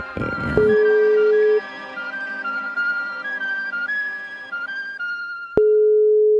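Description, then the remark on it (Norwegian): A phone ringback tone purrs steadily in long, even beeps, with a brief burst of background noise at the start and a single sharp click just before the final tone. “Får håpe han tar den, da”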